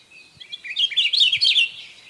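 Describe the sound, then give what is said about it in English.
An 'Akiapōlā'au, a bright yellow bird with a black eye mask found only in the upper elevations of the Big Island of Hawaii, calls in a bright, rapid series of high chirping notes that swell to a loud, fluttering warble, heard alone without any talking. “The 'Akiapōlā'au is a bright yellow bird with a black eye mask found exclusively in the upper elevations on the Big Island of Hawaii.”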